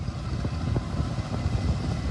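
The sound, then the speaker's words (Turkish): Steady, loud drone of six firefighting aircraft and four helicopters overhead fighting a forest fire in Menemen, İzmir, Turkey, a low rumbling roar with faint pulsing rotor beats running throughout, with no voices. “İzmir Menemen'de çıkan yangına 6 uçak, 4 helikopterle havadan, 25 arazöz, 6 su ikmal aracı ve 7 dozerle karadan müdahale edildi.”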